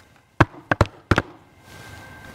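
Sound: knocking on a door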